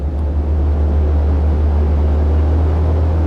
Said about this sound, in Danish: lyden af to motorer, der, der larmer. Så skal vi op i flyet. Det er jo sådan en lille tomotors Cessna.